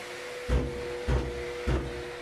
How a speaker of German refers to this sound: Was da so laut klopft, sind nicht die Arbeiter, sondern die Absaugung. Regelmäßig wird der Staub mit den Asbestfasern in einen speziellen, besonders dichten Beutel geschüttelt.